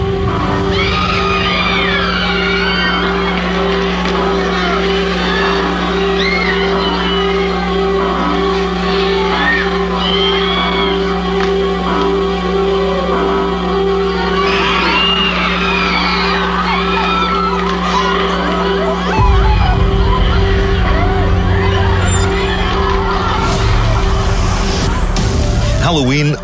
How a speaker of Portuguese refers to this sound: Ouça isto, está no YouTube. É a gravação das reações do público numa sessão de 1978 do filme Halloween. Os gritos, os sustos, a maneira como o assassino Michael Myers pode surgir de qualquer recanto escuro do cenário, isto era novo.